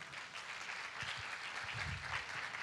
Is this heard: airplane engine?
no